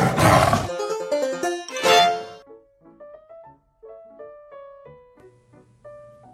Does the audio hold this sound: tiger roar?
yes